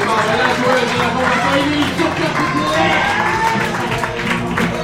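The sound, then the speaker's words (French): An audience at a show cheers and applauds loudly and steadily for about five seconds as the second team of the match, the Bookmaker, takes the stage: a dense wash of clapping mixed with scattered shouts and whoops that never lets up. “On va faire maintenant du bruit.”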